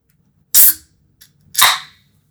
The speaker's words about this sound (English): I thought it was fake, but no, I did just open a Pepsi Max. That was fantastic.